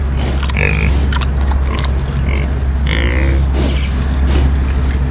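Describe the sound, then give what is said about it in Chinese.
A wild boar at Qianjia Farm in Hsinchu breathes heavily while eating, in snorting, grunting bursts, several irregular rough huffs over a steady low rumble, with no one talking. “这是山猪的呼吸声。”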